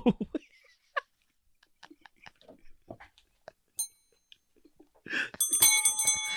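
A bright metallic bell gives a short ring, then rings again more loudly and keeps shimmering to the end, after some laughter and soft scattered sounds at the start.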